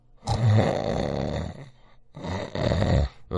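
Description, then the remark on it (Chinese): A man's voice imitates an old father snoring as he sleeps soundly in his room: two long, rasping, throaty snores with a brief pause between, followed by the start of a third, loud and rumbling with no talking. “老爷子在这打着呼噜呢，睡得这叫一香啊。”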